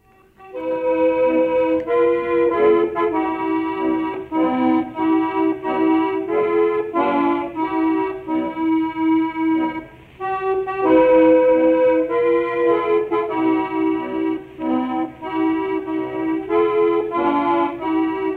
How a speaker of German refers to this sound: Deshalb haben wir ein deutschsprachiges Programm der BBC äh, rausgesucht und zwar die Absage ist eine Erkennungsmelodie für das Programm der deutschen Kriegsgefangenen.